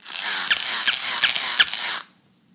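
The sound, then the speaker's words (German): A battery-powered toy dog, its right hind leg wrapped in tape and wired to a pink two-button controller, lets out four short, high, squeaky electronic yaps at a steady pace when the right button is pressed, over the constant whirring buzz of its motor, which stops abruptly after two seconds. “Und wenn ich den rechten Knopf drücke, dann bellt der.”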